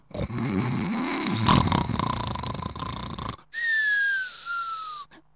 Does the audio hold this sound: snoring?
yes